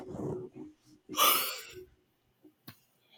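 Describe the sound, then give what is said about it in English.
A single drawn-out yawn: a breathy, rising exhale lasting under a second, with a murmur of soft vocal sound just before it and a faint click afterward. “the only thing you've contributed to this podcast is a yawn.”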